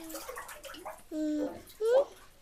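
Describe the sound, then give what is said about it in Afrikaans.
Gentle water sloshing and splashing as a mother bathes a baby, with a voice singing and speaking softly over the top in short melodic phrases. “Mamma is besig om Baba te bad.”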